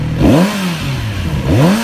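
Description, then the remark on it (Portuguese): The four-cylinder engine of a Z900 motorcycle, a relaunch of a 1970s model with ABS brakes, electronic fuel injection and traction control, rated at 111 horsepower, idles steadily and is revved twice in quick blips, each rising and falling in pitch, loud with no voices. “O motor é um motor 4 cilindros, que é um motor super dócil, né?”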